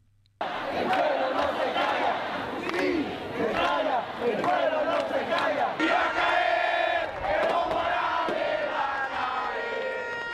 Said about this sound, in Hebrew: כן, המפגינים קוראים בין היתר מוראלס הולך uh, ליפול, ונזכיר שהם מוחים נגד תוצאות הבחירות לנשיאות שם בחודש שעבר.